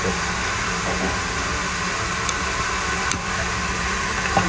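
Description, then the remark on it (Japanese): Steady sizzling of meat on a charcoal grill, a dense hiss with a few sharp pops and crackles scattered through, and no one talking. “ASMR そうそうそうそうあの炭が炭で焼ける肉の音”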